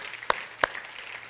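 A crowd applauds with a dense, steady patter of clapping, punctuated by two sharper, louder claps standing out from the rest. No one speaks.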